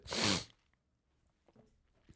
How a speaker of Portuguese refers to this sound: Peço desculpa. Eu respirei para aí quatro vezes antes de começar o episódio, mesmo antes, tipo, pus a, a gravar, comecei a espirrar, parei de gravar para aí quatro vezes, porque precisava de espirrar.